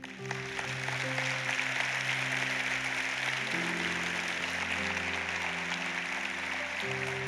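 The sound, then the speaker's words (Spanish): An audience claps steadily and continuously for several seconds, a dense, sustained wash of applause over soft, held keyboard chords that shift a couple of times. The applause is given to the Lord during a sermon. “Cuántos le pueden dar un aplauso al Señor?”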